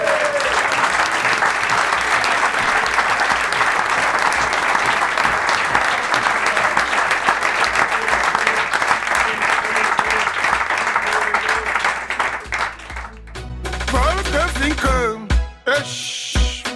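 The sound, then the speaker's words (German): A live crowd applauds loudly and steadily, a dense wash of clapping that fills the room for about twelve seconds before thinning out as a voice and some shuffling come through near the end. “Lasst euch doch nochmal hören, so, für die, die, die draußen mitlosen.”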